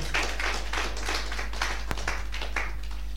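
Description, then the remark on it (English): A group claps in a steady rhythm, bright bursts of many hands landing together about twice a second over a constant low hum, with no voices. “i thought you were going to clap to that.”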